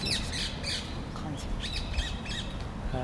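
Birds squawk repeatedly outdoors in harsh, bursting calls scattered across a few seconds, over a steady low rumble of background noise.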